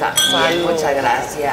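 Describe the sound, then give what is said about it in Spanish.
Glasses clink together in a toast, a few bright ringing chimes that linger briefly while people talk. “Salud, señor. salud. salud.”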